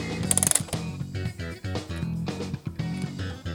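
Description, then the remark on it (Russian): A second mechanical analog alarm clock being wound: a steady run of rapid ratcheting clicks with brief pauses between turns, moderately loud, no voices over it. “И вторую заводим.”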